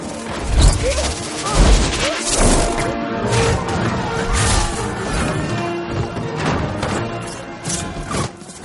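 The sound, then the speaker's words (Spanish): A loud, dull punch-like thwack lands as Jacob punches someone, then another heavy blow about a second later, amid a dense, chaotic clatter of crashing and rumbling noise that continues throughout. “Jacob le da un puñetazo.”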